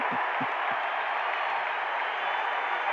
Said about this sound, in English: Yeah, they can show that over and over and over, and the crowd is still cheer for, for the night. Probably the largest ovation of the night, and there's been some good ones